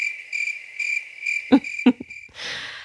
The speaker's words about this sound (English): and this is where the editor would insert cricket sounds.